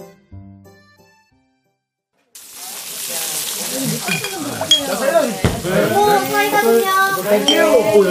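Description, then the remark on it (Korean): After a brief quiet start, a steady, crackling sizzle of fatty pork belly on a charcoal grill at a pork restaurant in front of a terminal rises and holds, dense hissing with scattered sharp pops as fat drips onto the coals, and faint clinks of utensils. “하얀 접시에 쌓여있던 선홍빛 고기들이 숯불 위로 올라갔다.”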